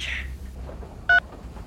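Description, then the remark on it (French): A telephone is slowly hung up, marked by a single short electronic beep that cuts off the call, clear against a faint low hum. No one speaks. “raccroche lentement le téléphone, complètement abasourdi.”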